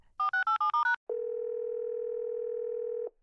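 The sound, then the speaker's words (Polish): A quick run of six touch-tone key beeps, then a steady, unbroken telephone dial tone that hums for about two seconds before cutting off. Clear, with no voices. “Gdzie dzwoniłaś?”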